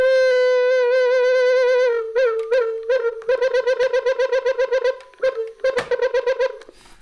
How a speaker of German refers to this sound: eine Rückkopplung erzeugen konnte.